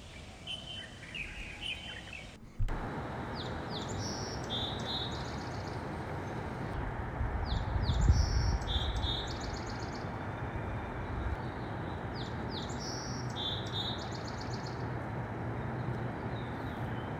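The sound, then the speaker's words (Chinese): Spring birdsong recorded near where the speakers live: high, bright chirps come in short repeated clusters, several birds calling over a steady, fairly loud hiss and low rumble that fills the background throughout. No one speaks. “我们这集不还是要那个跟大家分享一下我们各自在我们住的这个地方附近录的鸟鸣的声音嘛？”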